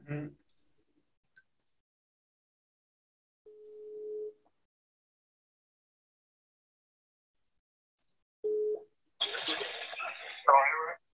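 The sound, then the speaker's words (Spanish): Two steady phone ringback tones sound with a long pause between them, the first longer than the second, while a call is placed to a friend in Tampico, before a voice answers and talk begins. “Eh, ya, le voy a marcar un compa de Tampico, güey.”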